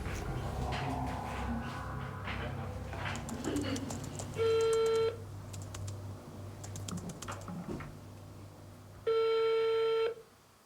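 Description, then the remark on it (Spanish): Quick button clicks and beeps of a number being dialed to phone a Chinese technology company's manager, then two long, steady ringing tones separated by a pause, over a faint background murmur. “Unos días más tarde, intentamos hablar con él por teléfono.”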